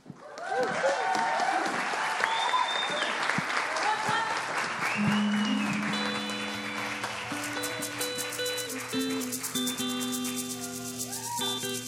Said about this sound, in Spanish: Solo se requiere de su sonrisa y alma a la menor provocación, con su aplauso continuaremos con este excelente concierto.